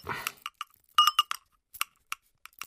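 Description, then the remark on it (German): A small bell on a tomcat's collar jingles in a series of bright, irregular tinkles, about a dozen short rings with pauses between, as the collar is handled and put on the tomcat; no one speaks. “Du willst echt die Glocke tragen?”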